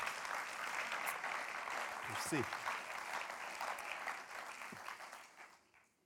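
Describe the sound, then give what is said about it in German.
Sustained audience applause welcoming a guest on stage, a dense steady wash of clapping that holds for several seconds before fading out, with a brief spoken word of thanks heard over it. “Tut mir doch mit einem herzlichen Applaus willkommen heißen.”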